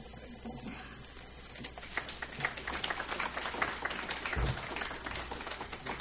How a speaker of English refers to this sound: Oh, you clap now, but just wait.